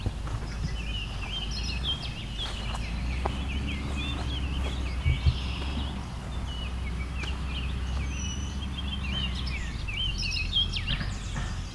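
orchard oriole singing

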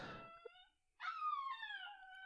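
dog whimpering and howling

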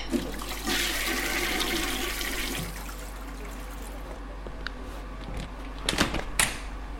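water running

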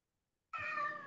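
cat meowing

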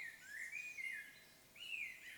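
baby birds chirping

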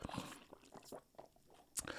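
sipping water

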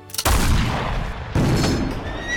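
cannon fire boom

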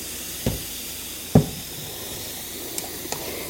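fizzy drink being poured

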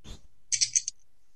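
dice being rolled

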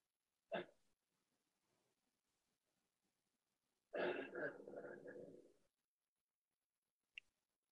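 dog snoring

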